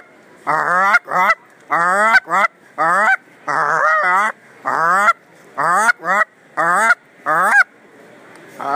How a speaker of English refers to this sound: Uh-oh, we flying overhead. We got some geese coming in. Call them up, boys.